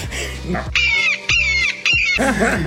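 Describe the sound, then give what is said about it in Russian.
Three loud, shrill squawks from eagles flying around come in quick succession, each a harsh, drawn-out cry separated by brief gaps, with a low murmur of voices and background noise at the start and end. “Еще орлы тут летают эти.”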